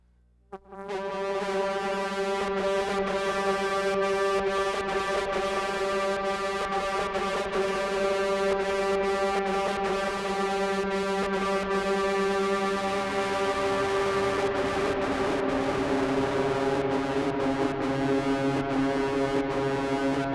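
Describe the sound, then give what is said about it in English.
An electric guitar, run through a tube phaser and a Chase Bliss CXM 1978 reverb pedal, holds a rich, sustained chord washed in reverb and sweeping phaser, the sound pulsing in a steady rhythmic throb set by tapping the tap tempo button, for about twenty seconds, loud, with no talking. “I should have mentioned I'm also running into the Chase Bliss CXM 1978, which is like the late 70s Lexicon 224 reverb or the 80s.”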